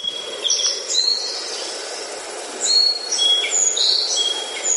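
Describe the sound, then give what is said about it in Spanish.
Several birds sing in bright, overlapping chirps and whistles from trees beside flowing water in a natural area, over a steady, rushing wash of the water, with no voices. “Hoy nos situamos en el centro de un paraje natural, al lado del agua, fluyendo, y rodeado de árboles repletos de pájaros cantando, o sea, en plena naturaleza.”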